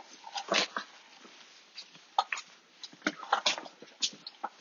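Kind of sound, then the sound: animal, dog snorting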